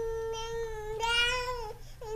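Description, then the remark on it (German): A healthy newborn baby boy of about seven pounds, held by the heels and given a firm slap, wails in a high, sustained, tonal cry that swells louder in the middle before breaking off, then starts again briefly, with no other voices. “Er verpasst ihm einen kräftigen Klaps, dann hebt das Gekreische an.”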